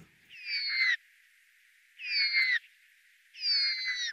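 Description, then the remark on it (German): A spotted nutcracker, a member of the crow family, gives three harsh, two-toned calls, each lasting about half a second with two parallel voices sounding at once, separated by short pauses, clear. “Bei einem Tannenheer, er gehört zur Familie der Raben, hören sich diese zweistimmigen Laute so an.”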